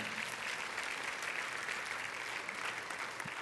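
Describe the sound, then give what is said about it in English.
Steady applause from an audience, a dense, even wash of many hands clapping at a constant moderate level for a few seconds, with no voices standing out. “Come on, go ahead and clap.”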